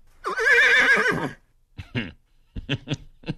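A horse lets out a loud, quavering whinny lasting about a second, followed by a few short, breathy snorts and huffs. No one speaks.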